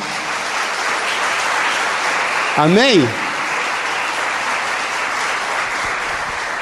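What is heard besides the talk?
audience applauding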